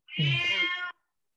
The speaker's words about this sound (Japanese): ちょっと猫がうるさいですね追い払ってきますはい。